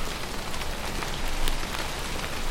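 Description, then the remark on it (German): Steady rain pours down on an island, a dense, even hiss of drops pattering on a surface with faint brighter splashes scattered throughout, continuous, with no voices. “Oh Mann, so ein, so ein Wetter, das kann ja wohl nicht angehen.”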